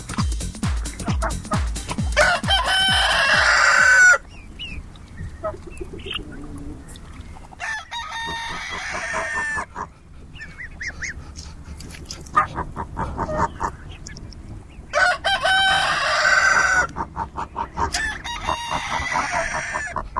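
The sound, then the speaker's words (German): Several roosters crow loudly in long, strained calls, overlapping at times, while hens cluck and mutter steadily in the background between the crows, on the dung heap at the Ledenhof. No one speaks. “Jetzt erstmal die Machos vom Misthaufen.”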